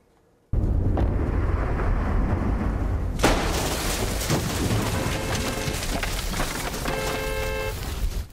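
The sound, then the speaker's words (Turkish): Lightning strikes a tree beside a parked car in Australia: a sudden, very loud thunder crack bursts out over a continuous heavy roar of rain, then rumbles on, with faint steady tones emerging toward the end. “Otomobilin yanındaki ağaca yıldırım düştü.”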